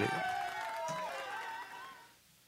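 A large crowd roars and cheers loudly, with shouts and whistle-like tones rising above a dense wash of noise that holds steady before tapering off at the end.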